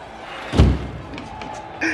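A door slams shut once with a heavy, booming thud that rings out briefly before fading, followed by quieter background rustling and a faint sharper knock at the very end.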